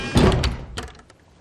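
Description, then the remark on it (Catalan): A door slams shut with a heavy thud, followed by a brief rattling knock as it settles, then the sound fades into quiet. “Però les mans encara les anques i el cervell enterbolit de somnis va esperar que la porta petara.”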